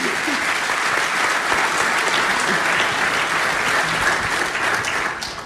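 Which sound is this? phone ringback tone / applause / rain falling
applause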